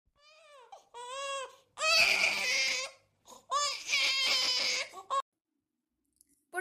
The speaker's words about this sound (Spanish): Un día, Angelito Terremoto tuvo una hermanita, pero cada vez que él se acercaba o simplemente estaba cerca, la niña lloraba.